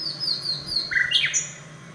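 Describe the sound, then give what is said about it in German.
A nightingale sings alone in Bamberg, Bavaria, Germany, with clear, high whistled notes that slide downward, followed by a brief burst of lower, richer phrases. The song is steady. “Allerdings haben sie aus Bayern bisher nur etwa 70 Aufnahmen bekommen, wie diese aus Bamberg.”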